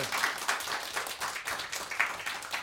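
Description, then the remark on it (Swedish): A burst of audience applause, many hands clapping in a dense, steady wash of crisp claps at moderate loudness, with no voices on top. “Applåd!”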